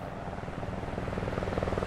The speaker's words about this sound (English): There's a, a helicopter flying right over me right now. It's just circling overhead. I can't make out who it belongs to.